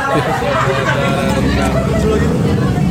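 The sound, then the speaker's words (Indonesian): A noisy motorbike engine rumbles steadily and loudly for the whole stretch, mixed with a busy background of people chattering. “Ini sepeda siapa sih ini berisik amat?”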